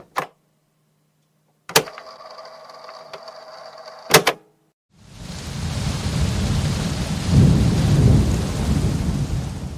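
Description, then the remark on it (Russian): A few sharp clicks and a faint humming tone give way to steady, dense rain noise that fills the second half, swelling louder with a low rumble near the end. “Только вот первую я записала сама во время недавнего дождя в Москве, а вторую скачала из интернета.”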